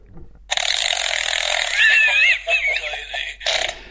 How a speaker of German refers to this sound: dieses Furzbuch macht Geräusche und jetzt hört man ganz genau hin hier.